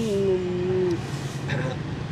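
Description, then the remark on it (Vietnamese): Busy street traffic on Lò Rèn street rumbles steadily while a single drawn-out vehicle horn sounds for about a second, then fades into the continuing road noise and indistinct voices. “Tại phố Lò Rèn, giữa tiếng coi xe cộ, tiếng ờ, máy cắt xen ờ, lẫn vào”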